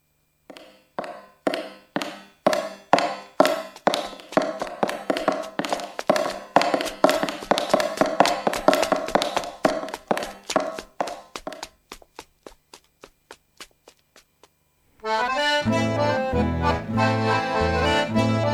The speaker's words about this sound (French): le bruit de leurs pas dans la rue résonne. Écoutez le bruit de leurs sabots, voilà les ouvrières d'usine.